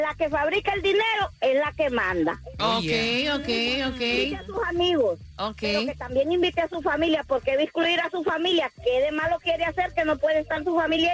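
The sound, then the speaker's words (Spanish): A female caller's voice over a phone line to a radio show carries a noticeable echo because she is listening to herself on the radio, each phrase slightly doubled, as she talks steadily while another voice briefly interjects. “Tienen que escuchar, ustedes escucharon que su, la llamada de ella se escucha con eco.”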